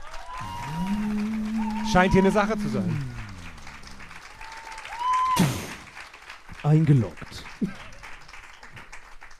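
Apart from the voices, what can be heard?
audience applause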